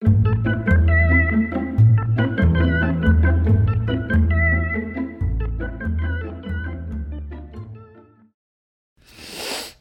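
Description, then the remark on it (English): A musical passage with deep bass notes and bright melodic tones fades out, followed by a short pause and then one breathy sniff, a quick burst of airy noise, as a person smells their own armpit. “That's the sound of me smelling my own armpit because I smell like a coconut vanilla cookie.”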